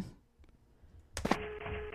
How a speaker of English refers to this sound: That's a cannon on the right. And a rock just fell. And I'm gonna get hit in the head.